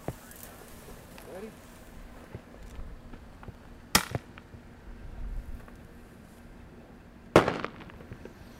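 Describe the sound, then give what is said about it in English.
A shotgun cracker shell, essentially a big firecracker, is fired from a shotgun way up above a cub: two sharp, loud firecracker-like bangs about three seconds apart, each with a short ringing tail, over a low outdoor rumble and faint voices. “we just have a simple cracker shell coming out of the shotgun. It's essentially a big firecracker.”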